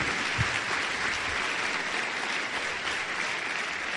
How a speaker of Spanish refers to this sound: ¿A poco no se merece un aplauso esta actividad, muchachos? De verdad. De verdad se merece un aplauso gigante.